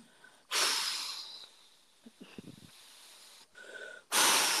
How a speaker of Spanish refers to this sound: Perdón, es que estoy respirando.